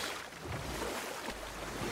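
boat moving through water

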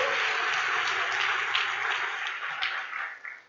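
audience applauding

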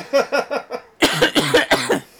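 cough

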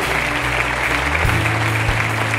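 audience applauding

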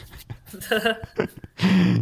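sneeze

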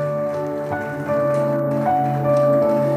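round of applause

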